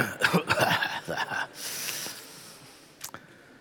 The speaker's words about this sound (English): On the count of three, everybody cough, okay? Just one, two, three. Just get it out.